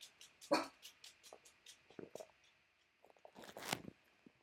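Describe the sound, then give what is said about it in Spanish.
A dog named Tor gives a sharp, loud bark, then after a few seconds another burst of barking, with quieter clicking and crunching noises scattered in between and no one talking. “Uf, con el perro.”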